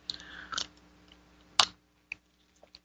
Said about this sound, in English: So, um, just having a sip here of my spiritual espresso, which tastes so good. Um, sorry, I'm slurping.